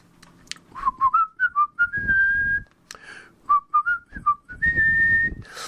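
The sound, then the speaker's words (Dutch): A person whistles a short film-theme melody twice, a run of quick stepping notes ending in a long held high tone, clear with no talking. “ook een melodietje wordt gefloten. Ik ga het even doen op een manier die hem geen eer doet, maar dan weten jullie over welke ik het heb.”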